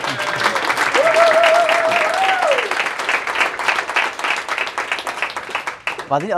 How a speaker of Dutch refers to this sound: Erg bedankt voor dit inspirerende gesprek. Ja. Eh, eerst een applaus en dan... Eén ja, oké, okay, applaus.